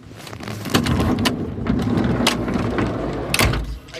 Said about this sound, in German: ich versuche jetzt mal die Tür, also man muss sagen, das ist ein vwt 2 bus ähm, die Tür aufzumachen.